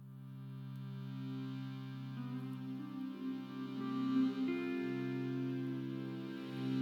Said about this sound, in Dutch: Dus hier is … van de nieuwe single ….